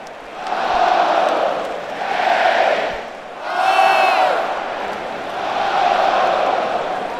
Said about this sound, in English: It was in Ohio that I joined a crowd of about 106,000 Ohio State fans inside the shoe. That's what they call the Ohio State University's football stadium. The Buckeye fans were greeting Notre Dame's Fighting Irish for the season opener.